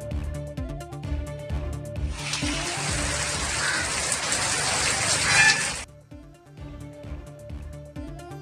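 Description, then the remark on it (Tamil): A burst of steady rain falling widely across Tamil Nadu, India, hisses loudly for a few seconds over a rhythmic music bed, starting and cutting off abruptly while the music carries on. “தமிழகத்தில் பரவலாக பெய்து வரும் மழையால் பொதுமக்கள் விவசாயிகள் மகிழ்ச்சி”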